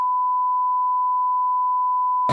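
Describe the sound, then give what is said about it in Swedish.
A steady, unbroken high-pitched censor beep holds for over two seconds, covering a word. A voice briefly resumes just as it cuts off. “Jag tror att det får bli ett pip där.”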